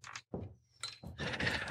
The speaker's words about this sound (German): Ich würfel hier jetzt fünf, fünf Würfel. Ja? Hörst du ja. das? Ja, fünf Würfel.